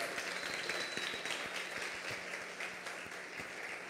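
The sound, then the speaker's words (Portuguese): A crowd applauds steadily for a few seconds for people attending for the first time, many hands clapping in a dense, even patter with no voices standing out. “Vou dar um aplauso pro pessoal que está vindo pela primeira vez.”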